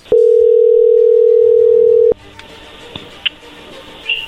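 A loud, steady telephone dial tone hums for about two seconds, then cuts off, followed by a few brief beeps and clicks of dialing a phone number over a faint background.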